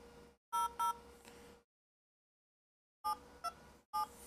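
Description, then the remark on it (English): A run of short two-tone phone keypad beeps as a phone number is typed in, pressed in quick bursts: two, then a pause of silence, then three more, loud with no talking. “First of all, I gotta type the phone number.”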